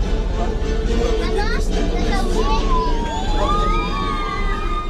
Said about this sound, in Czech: Podle křiku dětí je slyšet, že tohle je ta nejlepší část celé prohlídky.